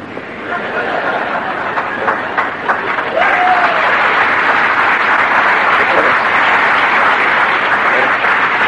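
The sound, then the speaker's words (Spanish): A crowd bursts into sustained applause, dense clapping that holds steady at full volume throughout, with a few voices and a brief whistle-like tone rising through it. “Pero no, no aplauda mucho porque el auspiciador, el auspiciador le dijo, Conmigo no cuente.”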